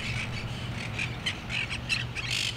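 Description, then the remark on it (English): A flock of parrots in Greenwood squawking in a rapid string of harsh, overlapping calls, over a steady low background rumble with no talking. “For now, the Greenwood parrots are not only safe, but thriving.”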